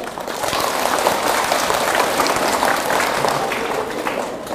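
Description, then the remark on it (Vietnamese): A crowd applauds steadily, dense clapping sustained at an even loudness for several seconds, with no one speaking over it. “vậy phải thích chứ nếu thích thì phải dành một tràng vỗ tay thật lớn”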